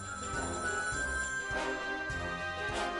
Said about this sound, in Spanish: un sonidito alto, pues de los teléfonos antiguos que habían antes, para que los amigos sepan lo que es el teléfono amigo.